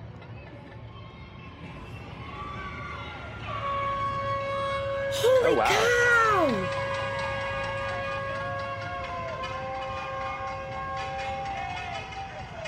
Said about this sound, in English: I have chills. Hear that metal? That's metal against.